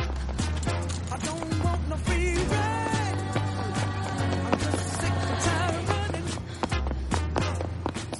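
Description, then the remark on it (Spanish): Quick, rhythmic running footsteps of a woman patter along outdoors as she leaves the east building and runs across the grounds carrying reports, partly buried beneath loud, busy music with a steady bass line that plays throughout. “Sale del edificio este y corre por el recinto.”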